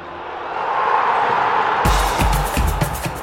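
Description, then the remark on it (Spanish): A big football stadium crowd roars in a steady, dense wash of cheering at Pelé's thousandth goal, scored from a penalty for Santos, then loud rhythmic thumps and bursts break in partway through, like drumming or stomping in the stands. “Y en cuestión de segundos, el grito de gol se escuchó por todo el mundo.”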